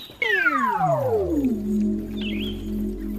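A single long, loud cat meow, starting high and sliding steadily down in pitch before settling into a drawn-out, wavering tail, with no talking.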